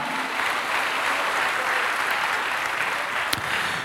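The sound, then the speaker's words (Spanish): An audience applauds Christ steadily, a dense, continuous patter of many hands clapping at an even loudness for several seconds, with no voices standing out above it. “Dale un aplauso a Cristo, hermano, a su nombre, gloria.”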